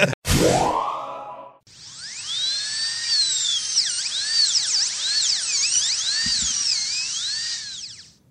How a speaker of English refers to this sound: That may be a drill, but it sounds just like my Quip toothbrush.